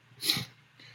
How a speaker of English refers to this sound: For some reason, I just yawned right in the middle of talking. So so fascinating. Middle of the day on a Friday.